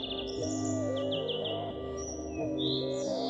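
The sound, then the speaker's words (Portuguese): A European greenfinch sings in the sun in an urban park, with a run of quick, bright chirping notes and a few higher trills, heard over a steady low hum in the background. “Ora, por aqui não faltam verdilhões. Há muitos mesmo.”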